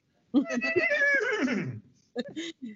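A horse lets out a loud whinny that wavers and slides downward for over a second, followed by a couple of short breathy snorts.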